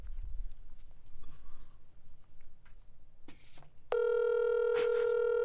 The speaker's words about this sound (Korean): 한번 전화를 한번 걸어보시죠. 스피커폰으로.